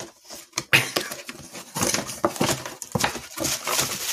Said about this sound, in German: Warte mal, aber ich habe doch jetzt deinen Cajon gar nicht gesehen, noch nicht. Ja, ja deswegen raschelt er ja jetzt hier. Ich, wir machen doch jetzt hier Live-Unboxing im Podcast.